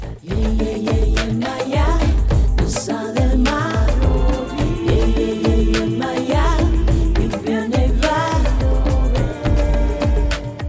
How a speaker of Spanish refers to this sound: Descubrimos ahora este tema que nos habla de la protección de los océanos.